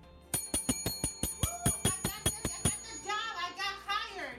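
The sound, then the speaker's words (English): A hand bell rings rapidly, about a dozen bright metallic strikes in quick steady rhythm, loud, rung by someone who has just got a job, then the ringing gives way to a burst of cheering, applause and excited voices from staff, clients and volunteers. “And the first thing they do is ring the bell.”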